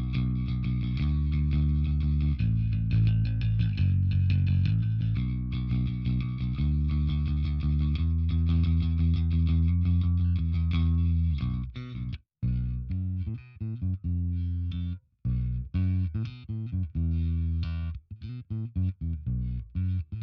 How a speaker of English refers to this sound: Uh, in this case, I've got a new bass. Um, and we alluded to it earlier because it is the brand spanking new Harley Benton jazz bass. Uh, this is the sound that was done in my unboxing. Let's have a quick listen to it now.